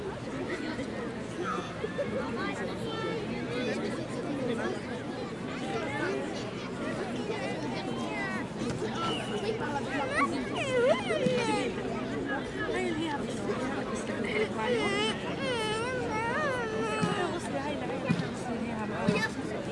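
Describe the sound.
A busy city beach soundscape at the Plage des Catalans in Marseille, France: steady crowd chatter, many overlapping voices blending into a constant hubbub, with occasional higher-pitched calls and shouts rising above the babble.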